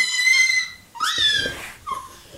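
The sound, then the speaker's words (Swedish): Three high-pitched falsetto squeaks, fairly loud: a long steady whine, then a rising squeal, then a brief short peep, with no talking. “Hela natten så piper”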